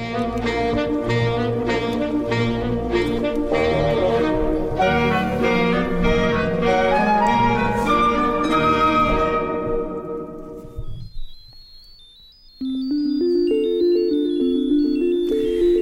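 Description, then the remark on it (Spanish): Spacey electronic synth music by a 1970s-80s electronic music duo, with layered, shimmering tones and steady pulsing notes, thinning to near silence before sparse high chimes and a sustained synth pad return, with no voices. “con un sonido algo cósmico. Tenemos aquí al dúo musical setentero-ochentero …”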